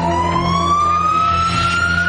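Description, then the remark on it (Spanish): A loud ambulance siren sounds close by, its steady wailing tone slowly climbing in pitch over a low rumble of traffic, with no one speaking. “Una ambulancia pasa cerca de Eduardo.”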